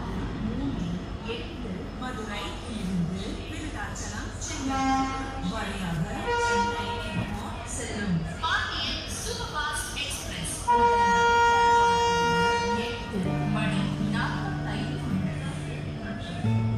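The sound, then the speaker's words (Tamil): An echoing public-address announcement plays over busy railway station noise, where the Pandian Express from Madurai to Chennai is five minutes from departing, with a sustained train horn blaring in the latter half and rumbling rail sounds underneath. “இந்த அனௌன்ஸ்மெண்ட் கேட்ட உடனே நான் என்னோட வாட்சை பார்த்தேன் இன்னும் ட்ரெயின் கிளம்புறதுக்கு அஞ்சு நிமிஷம் இருக்குது”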